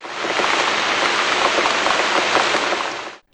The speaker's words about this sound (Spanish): Me encantan los días de lluvia. ¿Será porque a menudo suceden cosas divertidas? En un día lluvioso